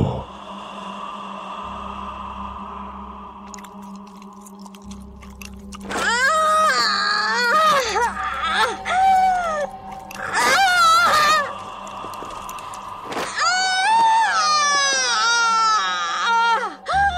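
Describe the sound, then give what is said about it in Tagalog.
A woman screams loudly in a series of shrill, wavering, piercing bursts late at night, breaking out after several seconds of low, quiet background hum. “sa lakas ng sigaw na yun ni Tia … ay nabulabog pa ang ilang kapitbahay namin”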